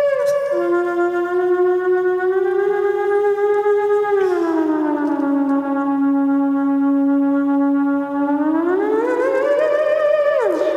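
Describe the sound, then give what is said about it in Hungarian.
An eerie theremin wail holds a loud, steady pitch, slides lower, then swoops back upward near the end, sounding like a Halloween ghost effect with no voices alongside. “lehet ilyen, Bravo. ilyen halloween hangokat is ki, hát kihozni hát azt belőle.”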